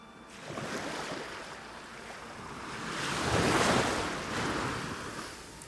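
Sea waves wash onto the shore in broad, rushing swells, one building to a louder surge midway before receding, with a steady windy hiss throughout and no voices.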